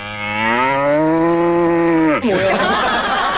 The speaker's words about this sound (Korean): 음매 음매 여기 네, 네. 음매 음. 아 정말 그 지금 들어도 웃깁니다 네.